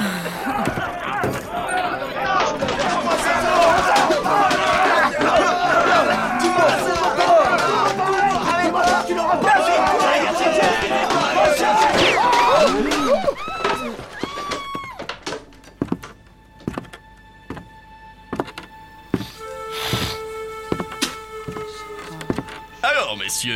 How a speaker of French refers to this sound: on se bat dans un débit de boisson